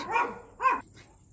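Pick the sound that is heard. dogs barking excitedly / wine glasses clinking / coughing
dogs barking excitedly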